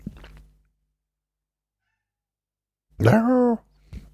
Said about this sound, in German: Nee, das ist die Katze mit der eindringlichen Stimme, die hat jetzt irgendwie Hunger oder will gekuschelt werden. Oder sie will auch was sagen, keine Ahnung.